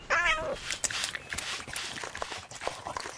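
A cat, Kitty, gives one short, mid-pitched meow that slides downward as it finds the egg salad, followed by a few seconds of scattered rustling and light clattering noises.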